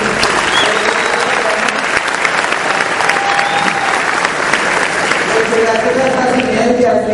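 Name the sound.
loud applause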